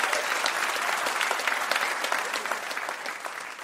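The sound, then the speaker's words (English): An audience applauds steadily for mystery guest Amy Webb, a dense wash of many hands clapping at an even level for several seconds, tapering slightly toward the end, with no talking over it. “Please, everybody, give a huge round of applause for our mystery guest, Amy Webb.”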